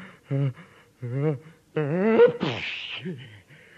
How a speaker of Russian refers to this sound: Ой. Будьте здоровы, сеньор.